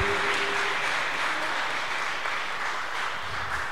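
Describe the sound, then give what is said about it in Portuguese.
An audience breaks into loud, sustained applause for the Lord, many hands clapping in a dense, continuous wash that holds steady throughout with no voices standing out. “Você que está na sua casa, aplauda bem forte a Ele.”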